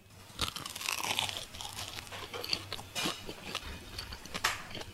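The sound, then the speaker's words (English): Crisp crunching bites into a freshly fried, mochi-like donut during a taste test, a series of sharp crackly snaps followed by softer chewing, fairly loud with no talking. “Okay, hopefully it will crackle and it should be nice and chewy on the inside, almost like a mochi.”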